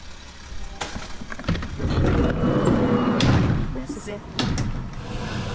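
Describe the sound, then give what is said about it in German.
Ambulance doors slam shut several times at uneven intervals, each a sharp thud, with clattering, rustling and muffled voices from the crew readying the ambulance to drive back to the station. “Das heißt, wir haben jetzt den Wagen zurechtgemacht und fahren zurück auf die Wache.”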